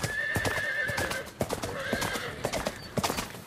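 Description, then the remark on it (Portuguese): Horse hooves clip-clop in a steady, uneven rhythm while a horse whinnies with a drawn-out, wavering call over the first half and again midway. “Pode ser que faças como a Maria, que pratica este desporto porque gosta muito de cavalos.”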